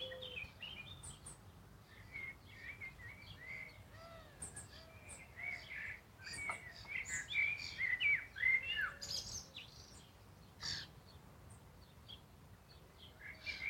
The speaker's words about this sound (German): während du wahrnimmst die unterschiedlichen Klänge, Geräusche der Natur, die Musik der Vögel.